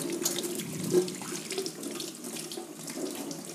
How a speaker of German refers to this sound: So, meine Hände kleben wieder. Zeit, sie zu befeuchten, aber ich nutze jetzt die Gelegenheit und wasche sie wieder mal.